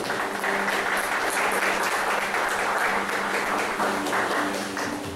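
A church audience applauds the Lord during a service, a dense, steady wash of many hands clapping for about five seconds without pause, fairly loud, with no one speaking over it.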